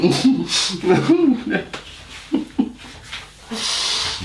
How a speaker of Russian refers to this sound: Простите, господа, я кашей прыснул.